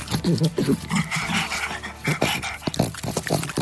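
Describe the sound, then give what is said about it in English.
A voice actor imitates a small pug dog panting and growling for an upcoming Halo video game, with rapid breathy huffs broken by rough, throaty snarls and snorts in an uneven, busy rhythm that runs for a few seconds. “Well, those are some of the sounds you'll hear on the next installment that's coming out soon.”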